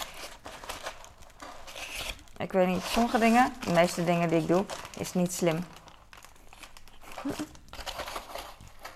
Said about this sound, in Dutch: Maar ik kan ook dit gewoon. Eh, is dit slim? Ik buig de karton van mij.